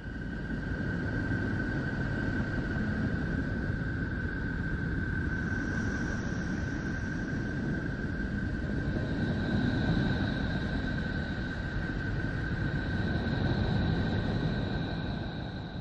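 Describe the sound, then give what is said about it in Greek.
A recording presented as the sound of planet Neptune: a steady, unbroken low rumbling drone with a constant thin whistling tone above it and faint higher tones drifting in, with no voices. “Έχω Ποσειδώνα και Κρόνο. Τώρα θα βάλω Ποσειδώνα.”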